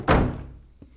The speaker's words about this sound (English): I'm shutting the door behind me.